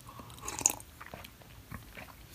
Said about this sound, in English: again, let me, let me drink some of this. You might hear my little bit of bass in my voice.